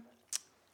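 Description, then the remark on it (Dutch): A single quick, crisp smack of a small dog chewing its food, fairly quiet, with a soft low hum in the background and no voices. “Dat is, het hondje. Eh, eh. die is lekker even aan het eten.”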